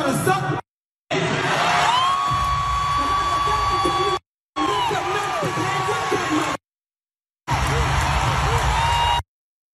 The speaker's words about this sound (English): Uh, the part that you did not hear because the crowd was cheering, put it up.